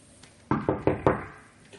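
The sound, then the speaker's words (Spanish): Four quick, firm knocks on a dressing-room door backstage at a theatre, in an even rhythm, fairly loud, then quiet. No one speaks. “Y entonces se baja a los camerinos y le toca la puerta.”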